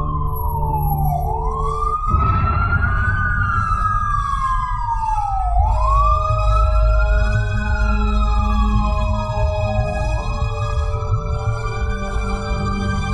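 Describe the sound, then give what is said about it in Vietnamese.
A loud ambulance siren wails as the ambulance arrives, in slow, rising and falling sweeps, repeating about three times over a low rumble of engine and traffic, with no one speaking. “Khi xe cấp cứu tới Thắng chỉ kịp giật phăng trước màn cửa cạnh đó”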